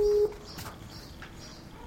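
A steady electronic call tone sounds briefly, drops away into quiet hiss, then starts again right at the end: a Skype call to an asylum office dropping and redialing while thousands of people try to get through at the same time.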